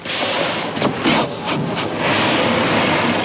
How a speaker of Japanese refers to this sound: そしてそしてこの時期美味しいのが新米。まあ、精米して袋詰めをする、その音だけではなかなか美味しさは伝えきれないんですけれども、新米のお話も伺ってきました。